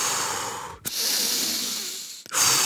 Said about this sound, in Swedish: verkligen var tvungen att andas liksom.